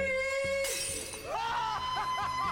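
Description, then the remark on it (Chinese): A steady note sung by MythBusters host Adam, an amateur given brief coaching, holds, then a wine glass suddenly shatters in a loud, bright crash, followed by scattered tinkling fragments and a faint voice-like sound. “玻璃杯瞬间破碎。”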